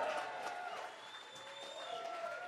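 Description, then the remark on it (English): A live crowd at the Paddo claps and cheers steadily for a few seconds, a dense wash of applause mixed with shouts and whoops. “Can we get a very warm welcome to our listeners, our audience that are watching along on the podcast from yeah.”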